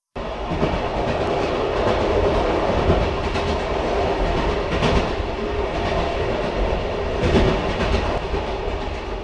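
A train rolls along the rails, a steady loud rumble with periodic clacking of the wheels over track joints, no voices.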